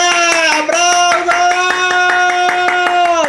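Audience applause: sharp, steady claps ring out over a loud, sustained musical tone that holds throughout, with no talking.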